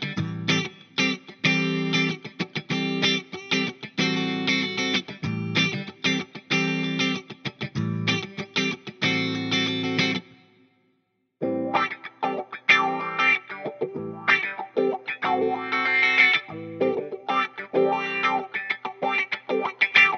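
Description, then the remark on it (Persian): A funk rhythm on electric guitar played through a wah pedal, one of the key effects of funk, with choppy rhythmic strums and sweeping vowel-like filter shifts, pausing briefly midway before the groove resumes. No voices are heard. “در وهله اول با گیتار الکتریک یک ریتم فانک براتون خواهم زد و در ابتدا صدای گیتارم رو کلین و زلال خواهم کرد و بعد همون ریتم رو با افکت واه خواهم زد با پدال واه خواهم زد که شما صدای پدال واه رو هم که یکی از مهمترین افکت های سبک فانک هست رو بتونید بشنوید”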